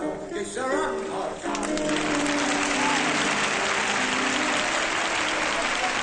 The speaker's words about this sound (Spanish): Las personas del público dejan de bailar con las manos agarradas y aplauden muy emocionadas.